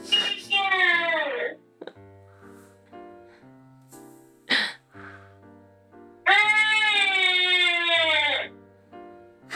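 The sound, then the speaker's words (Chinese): A baby whimpers over a baby monitor: two long, drawn-out moaning wails that sag in pitch, with a short yelp and quiet gap between them, loud and slightly harsh. “这是监视器传来的哭声，让大家体验一下我们的日常。”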